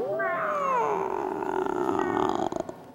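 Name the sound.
people imitating cat meowing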